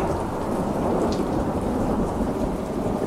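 rain with thunder

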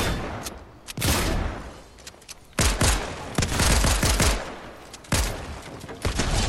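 video game gunfire

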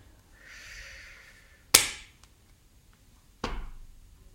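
hand clapping

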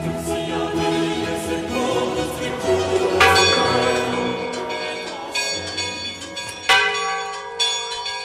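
bell ringing

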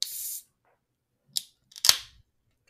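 beer being cracked open

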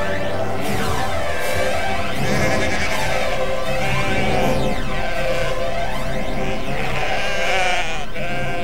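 sheep bleating

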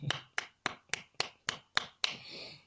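hand clapping

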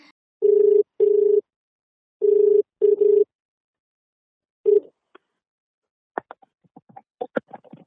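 telephone call ringing

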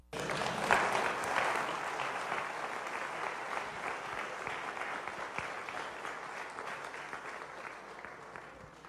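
audience clapping

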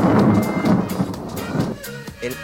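thunder

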